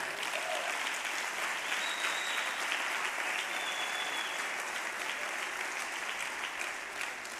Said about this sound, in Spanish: ¡Aleluya! ¡Santo! Dile un aplauso fuerte a Jesús.